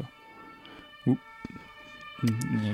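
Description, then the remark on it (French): A faint emergency siren from an ambulance or police car drones steadily outside in Paris while a person talks in short bursts. “En même temps, un petit, une petite ambulance, un petit, une, petite voiture de, flics, c'est aussi une sorte de musique ambiante.”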